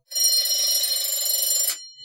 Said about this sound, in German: Klingeln. Klingeln. Ähm, es ist nichts weiter als um die Klingel zu prüfen. Die Klingel zu prüfen, genau.